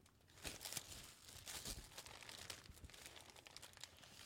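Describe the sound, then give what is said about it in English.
Paper from Reverb crinkling as it is handled, a dense run of crisp rustles and crackles with sharper bursts scattered throughout, fairly quiet and continuous with no voices. “I think it's just paper. Yeah, it's just paper.”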